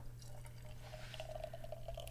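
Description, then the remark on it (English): Cold, fresh limited-batch beer from the Green Mountains pours into a Line Life glass with a soft, steady liquid rush and quick bubbly glugs, set against a constant low hum. It is fairly quiet, with no talking. “It's been cold, and it's still fresh. I pour it.”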